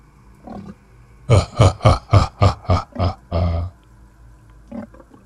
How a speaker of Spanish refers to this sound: Un gruñido, seguido de una risa en forma de burla, me puso los pelos de punta.